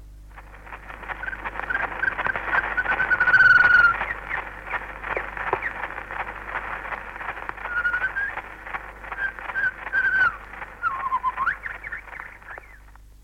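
A shama's song on a very old, crackly recording: bright whistled phrases and trills rise now and then through a constant scratchy hiss, sounding thin and tinny with no voices.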